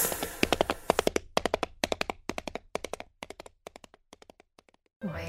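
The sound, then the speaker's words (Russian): A giraffe's hooves clop in a sound effect, a quick, uneven run of sharp, hollow knocks, grouped in bursts that gradually grow fainter and sparser, with a short rush of noise at the very end. “Вот так мне нравится, как у него копыта стучат.”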